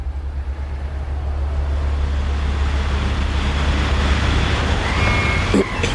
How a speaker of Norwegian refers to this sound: Nå går jeg her blant eh, biler av alle nasjonaliteter på vei ut av ferga.